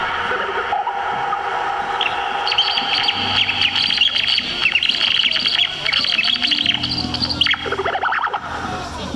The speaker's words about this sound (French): C'est un instrument qu'on appelle the pipe, le tuyau. Physiquement, c'est à mi-chemin entre le saxo et le kazoo. Et sonoristiquement, bah, bah écoute,